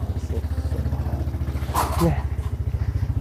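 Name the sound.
motorcycle engine idling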